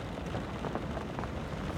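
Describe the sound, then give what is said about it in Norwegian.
Steady rain drums on a roof in a dense, continuous patter, fairly soft and even throughout, with no voices or other sounds over it. “Bare regnet som trommer på taket.”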